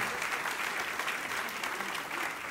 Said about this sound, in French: Donc si vous êtes pour applaudir, vous applaudissez.